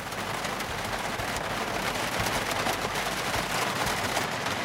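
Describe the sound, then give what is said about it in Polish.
Heavy rain drums steadily on a car roof, a dense, unbroken hiss packed with countless rapid, crackling impacts that stays loud and even throughout, with no voices. “Krople bębniące w dach samochodu, zdaje się.”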